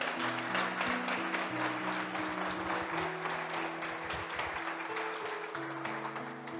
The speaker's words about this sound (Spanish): Un aplauso, por favor.